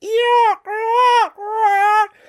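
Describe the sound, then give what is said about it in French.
Three loud, drawn-out cries from gulls that winter in the city follow one another with brief gaps. Each is a nasal, harmonic wail that holds steady and then drops at the end, with no voices. “Leur cri, si reconnaissable et mélodieux,”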